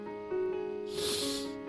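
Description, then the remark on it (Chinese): One hard, breathy sniff through the nose by a father sniffing to smell something stinky, a short rush of hissing air lasting about half a second, heard over a steady humming musical tone. “他用力吸了吸鼻子，我可知道，我知道爸爸踩到什么了。”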